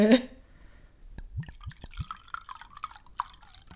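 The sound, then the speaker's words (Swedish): Wine glugs and splashes as it is poured from a bottle, in a run of quick uneven gurgles and drips after a brief initial burst, with no talking. “Hoppas ingen blir kissnödig av Ja, jag kände det var, det var, det var mer det än lockande vin.”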